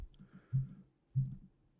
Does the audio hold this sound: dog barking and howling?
no